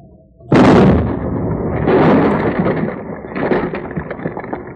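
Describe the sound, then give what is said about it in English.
The last explosive charge, set off against a fire, bursts in as a sudden loud blast after a quiet lead-in, followed by a long rumbling, crackling roar that swells again before slowly settling, with scattered debris-like crackles. “That blast made as much a dent on that fire as a Jersey mosquito on a boulder.”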